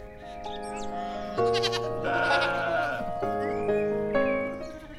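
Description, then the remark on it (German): Several sheep bleat in overlapping, drawn-out calls, loud, with a quieter bleat or two in the background and no talking. “Im Sommer suchen Kühe, Schafe und Pferde unter ihnen Schatten.”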